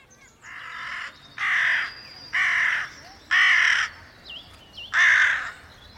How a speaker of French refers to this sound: Au printemps, au moment de la nidification, les corneilles n'hésitent pas à chasser l'intrus animal ou humain par des cris très bruyants tout en volant autour de lui pour l'éloigner.